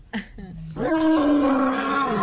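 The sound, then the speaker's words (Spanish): A person's voice imitates a lioness's roar: a short throaty lead-in, then one sustained, loud, rumbling roar held for over a second, with no talking. “No, el león, eh, se llama rugido, el león es fácil, es así.”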